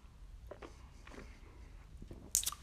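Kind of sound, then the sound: food or drink, sipping beer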